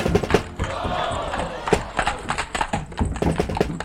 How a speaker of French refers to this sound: La salle ne désemplit pas. Et figurez-vous que certains soirs de première, nous devons même faire appel à des gardes pour éviter les émeutes et les bagarres devant les portes.